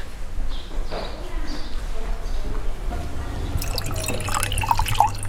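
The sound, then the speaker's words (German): At the nursing staff's table in a hospital in Dornach, water pours into a drinking glass with a bright, splashing gurgle in the last couple of seconds, after a few light clinks and a faint murmur of voices in the background. “Am Tisch bei den Pflegefachkräften gibt es erstmal ein Glas Wasser.”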